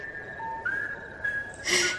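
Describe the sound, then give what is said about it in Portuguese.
An eerie, drawn-out whistle holds one thin, steady pitch for about two seconds, sliding slightly upward partway through, then a brief louder, breathy burst near the end. No one speaks. “E por isso ele vaga até hoje durante a noite e quando cruza com alguém, ele solta um assobio assustador.”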